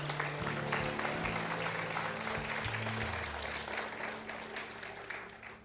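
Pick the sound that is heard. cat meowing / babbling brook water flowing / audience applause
audience applause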